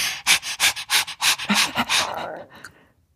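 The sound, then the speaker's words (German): A person pants rapidly and forcefully as a yoga breathing exercise, about a dozen quick, breathy huffs in a steady, fast rhythm, fairly loud, then trailing off into a softer exhale. “Und dann gibt es auch dieses geile Hecheln, dieses.”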